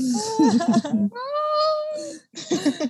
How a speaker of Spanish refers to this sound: Mi corazón. La niña llorando.